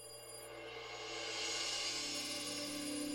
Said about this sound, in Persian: انگار صداش از هر بار داشت بلندتر میشد حس میکردم الان که دیگه گوشم کر بشه باورتون نمیشه ولی با هر بار زنگ تلفن انگار تمام وسایل خونه میلرزید برقای خونه ضعیف و قوی میشد دیگه آخراش حس میکردم از همه دنیا داره صدای تلفن میاد